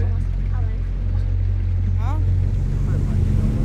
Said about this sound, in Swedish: vi får ju åka båt dit ut, ja. den ut i skärgården. Ja. Och det tar väl en halvtimme kanske, 20 minuter, en halvtimme. Vi åker ner till hamnen där pappa har sin båt. Det dröjer inte länge innan vi är ute med staden Västervik bakom oss.